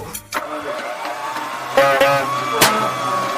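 A car engine roars loudly as the vehicle speeds and accelerates wildly, seeming to try to force another car onto a different road; its steady mechanical whine is broken by a few sharp, sudden bursts.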